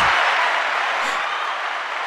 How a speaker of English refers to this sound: Applause.